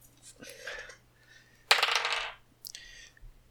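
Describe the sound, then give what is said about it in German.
Dice clatter and roll across a hard tabletop in a few short bursts, with one louder tumble in the middle, and no talking. “Du musst leider nochmal würfeln, er ist nämlich im Dodge, das heißt, du würfelst ah.”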